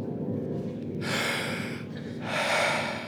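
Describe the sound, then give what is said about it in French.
A deep breath drawn in by an actor about to go on stage, followed by a second long, airy breath, each about a second long and fairly loud, with a low hum underneath and no talking. “Il prend une grande respiration et monte sur scène.”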